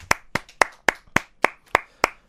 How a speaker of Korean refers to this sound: 네, 박수 한번 칠게요.